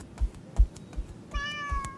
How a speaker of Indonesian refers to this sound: Kakak, sini deh. Lihat ada anak kucing lucu banget.